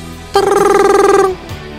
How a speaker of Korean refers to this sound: 전화벨이 울렸습니다